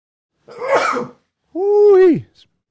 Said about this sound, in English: I'm going to sneeze.